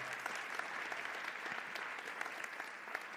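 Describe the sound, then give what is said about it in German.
An audience claps steadily for the technicians, a dense patter of many hands sustained at an even level for a few seconds with no voices standing out. “Ein Applaus für unsere Techniker.”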